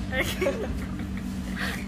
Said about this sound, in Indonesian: itu suara AC guys